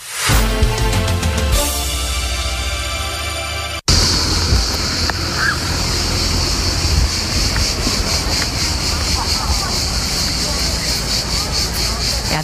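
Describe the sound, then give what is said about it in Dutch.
A few seconds of music give way abruptly to a steady, broad wash of sea waves on the beach at Porto Venere, Italy, with wind and a faint murmur of voices filling the background. “dit is voor mij toch wel echt ah, zie de soundtrack van de Italiaanse zomer, van de langs de zee.”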